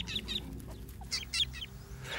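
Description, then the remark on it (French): Harsh, raspy bird alarm calls from a fork-tailed drongo of the Kalahari Desert, South Africa, sounding in several quick clustered bursts over a low steady background rumble, with no one speaking. “Il y a les drongos brillants du désert de Kalahari, en Afrique du Sud, qui sont capables de lancer des cris d'alarme dans 32 langues étrangères différentes, la langue d'autres oiseaux, et la langue des suricates, les chiens de prairie.”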